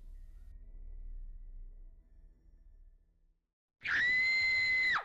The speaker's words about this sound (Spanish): Las chicas gritaron aterrorizadas y atravesaron las colinas corriendo sin atreverse a mirar atrás.